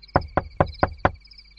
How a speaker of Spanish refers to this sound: Al fin, no pudo soportar más tiempo, se levantó y fue a llamar a la puerta del doctor.